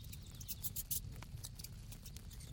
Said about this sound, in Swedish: Det lät som om någon pep inifrån lövhögen och för att höra bättre gick hon närmare den. Jo, mycket riktigt så kom det ett ljud från löven.